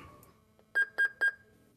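A medication dispenser being tested by home care services in Trondheim sounds its alarm at a preset time, three short, evenly spaced electronic beeps, clear, with no talking over them. The user then presses OK on the box and the medicine comes out.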